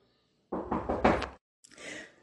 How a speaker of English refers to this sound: My son's knocking on the he's knocking on the door. Somebody help me.